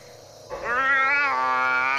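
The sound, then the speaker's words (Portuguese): A single long, drawn-out cat-like meow, loud and close, holding a steady wavering pitch for about a second and a half before cutting off abruptly. No one speaks. “quando Toshio se manifestava, ele soltava um miado de gato”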